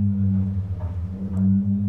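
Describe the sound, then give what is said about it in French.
A deep, steady resonant hum with layered low tones drones continuously, swelling slightly: a taut metal stay cable vibrating and resonating inside one of the floats of a trimaran. “Ça, c'est le, haut-banc qui résonne dans, dans un des flotteurs du trimaran. Qu'en fait, c'est un câble métallique qui vibre.”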